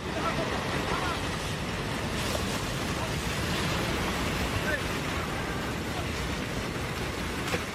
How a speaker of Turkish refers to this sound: Kentin en yüksek bölgesinden kopan toprak selle beraber evleri, arabaları da yuttu. Atami şehrinde meydana gelen heyelanın ardından 20 kişi kayboldu.